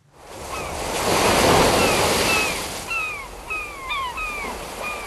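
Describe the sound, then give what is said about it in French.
Ocean surf washes in with a broad, rising roar, while several seagulls cry repeatedly overhead, their sharp descending calls overlapping near the end. No one speaks. “on termine le journal imprévisible avec un soupçon d'océan”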